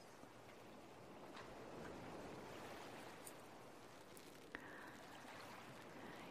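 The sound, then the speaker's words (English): Gentle ocean water splashing and washing in a steady, continuous hush, fairly quiet and even throughout, with one small sharp tap partway through and no voices. “You start hearing a little splashing of the water.”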